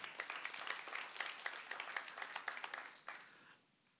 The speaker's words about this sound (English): Come on, is that good? Y'all give the Lord a hand clap for that.